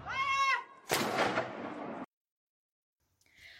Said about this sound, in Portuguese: 24 horas depois do anúncio da morte do príncipe Philip, o marido da rainha foi homenageado com uma salva de 41 tiros de canhão. Um tributo das Forças Armadas em terra e mar e nas quatro nações que formam o Reino Unido.